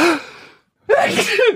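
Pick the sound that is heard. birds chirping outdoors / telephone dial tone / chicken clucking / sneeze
sneeze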